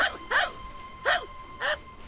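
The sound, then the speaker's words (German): A dog gives four short, high yappy barks at an uneven pace, fairly clear over a faint background hum, with no one talking. “Tut mir leid, aber Hunde sind hier verboten.”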